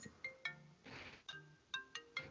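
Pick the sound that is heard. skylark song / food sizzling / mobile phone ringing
mobile phone ringing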